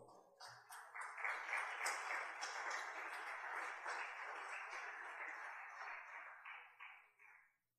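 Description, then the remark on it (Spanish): The audience at a sermon applauds themselves steadily for several seconds, a dense wash of many hands clapping at once, holding strong before tapering off and fading out at the end. “Dese un aplauso, por favor.”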